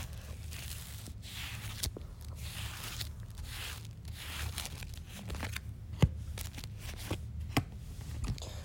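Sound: shuffling cards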